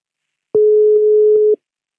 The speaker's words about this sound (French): Un téléphone. Il sonne dans le vide. Longuement. C'est pour foutre la pression, là.